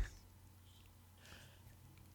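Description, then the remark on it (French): A long, near-silent pause after a joke with only a faint low hum, then one loud, abrupt, deliberate cough bursts out right at the end, meant to copy the coughs in The Simpsons. No one speaks. “Fuck, je voulais tousser comme dans les Simpsons.”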